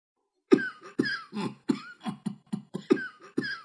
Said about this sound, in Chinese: 象老爹总是很小心，不让自己笑得太厉害，不然他会大声咳嗽的。终于有一天，象老爹又大声咳嗽了，